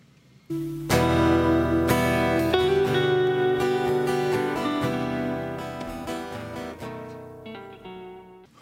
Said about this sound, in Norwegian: Jeg bruker vel den eh, melodien i alle disse, disse programmene som jeg har her.